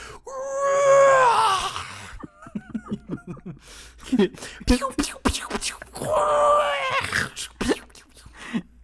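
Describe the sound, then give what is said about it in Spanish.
A voice mimics the shrill, wavering engine scream of an Imperial TIE fighter from Star Wars in two long, loud bursts, with chuckling and snickering laughter in between. “Te estoy imaginando de chiquito jugando con tus naves de Star Wars haciendo sus ruidos”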